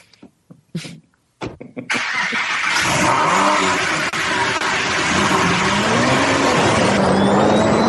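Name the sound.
car engine running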